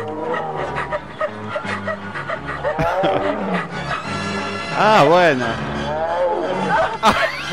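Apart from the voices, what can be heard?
tiger roaring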